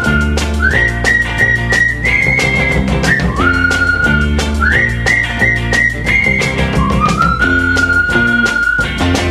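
A whistled greeting tune between friends, long, sustained notes that slide up and step back down, the short phrase played twice over a loud, steady rhythmic music backing with no talking.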